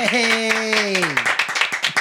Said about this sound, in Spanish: Un aplauso, por favor.